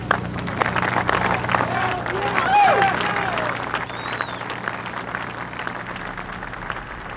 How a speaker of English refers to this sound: The medical assessment team, the drillers, the assemblers, the people that secured the site, give yourselves a big hand here.